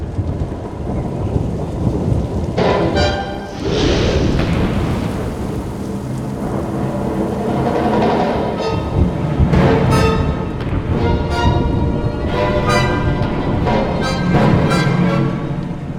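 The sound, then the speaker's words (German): Deep rolling thunder rumbles through steady rain, with a loud crack near the start and repeated booming swells that keep returning over the constant hiss of the downpour. “Aber der Donner!”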